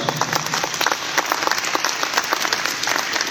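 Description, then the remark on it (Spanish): A crowd applauds steadily, dense overlapping hand claps forming a continuous rattling texture at a moderate, even level throughout, with no voices heard. “un aplauso, ya que empezó.”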